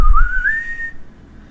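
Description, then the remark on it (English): A person whistles back in reply to a whistle that arced through the sky overhead on the road: a single clear whistled tone rises gradually in pitch and holds steady for about a second before cutting off, fairly loud over low background rumble. “Uh you whistle back? Yeah, I do.”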